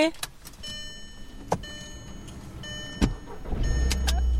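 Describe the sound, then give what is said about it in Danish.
A few sharp clicks inside a car over steady electronic tones, then the engine turns over and settles into a low rumble as the car sets off. “Skal vi øh, køre afsted?”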